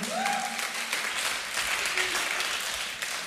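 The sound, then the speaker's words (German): An audience at a church youth event in Wuppertal breaks into applause for the local döner, a dense, steady wash of many hands clapping at once, loud and sustained for a few seconds with a brief whistle or cheer rising above it near the start. “Komm mal, einen Applaus für euren Döner.”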